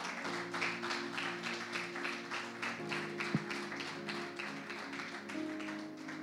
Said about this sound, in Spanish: ¿Cuánto pueden darle un aplauso al Señor?